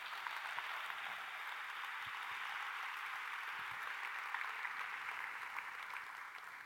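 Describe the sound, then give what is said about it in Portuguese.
Sustained applause from an audience at a morning church service, given to the Lord Jesus: a dense, even wash of many hands clapping at steady loudness for several seconds with no speech over it. “Se você recebe, dê um aplauso para o Senhor Jesus nessa manhã.”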